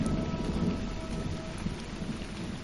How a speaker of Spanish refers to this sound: Mientras la tormenta caía a chorros, los deslaves de lodo ocasionaron que se sepultaron ambos cuerpos, de madre e hijo.